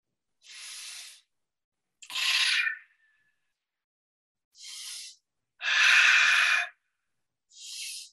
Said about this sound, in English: And then we're going to breathe that light in three to 10 times. In this instance, we're going to do three. So let's breathe that light in three times.